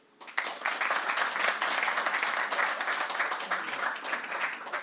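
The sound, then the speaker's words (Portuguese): A Portuguese audience bursts into sustained applause, a dense wash of many hands clapping at steady loudness for several seconds, with no speech on top. “Quem é que gosta do meu estilo? Por palmas.”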